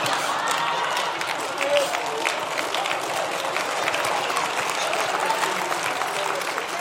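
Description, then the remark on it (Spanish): An audience claps steadily for about seven seconds, a dense, even wash of many hands with no single claps standing out, sustained at a fairly constant loudness throughout. “El que no aplaudió está pensando cuál es el animalito que camina con dos patas.”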